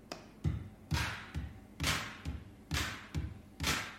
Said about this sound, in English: is a 12 inch record and it's had holes drilled in it with kind of nuts and bolts put through at each 90 degree angle, and they are, as it rotates, hitting against some contact mics, which are triggering a drum synthesizer, and that sounds like this.